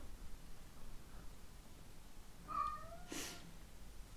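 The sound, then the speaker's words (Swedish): A cat lets out a drawn-out, wavering yowl partway through, followed by a short breathy burst, all over a soft steady hiss of room noise. No one speaks. “Han går och ylar här i bakgrunden.”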